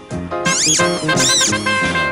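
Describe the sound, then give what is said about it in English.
A rubber duck toy squeaks loudly, giving two or three rising-and-falling squeals over a steady buzzy, reedy tone for about two seconds. “I always get a silly squeak when I play the blues.”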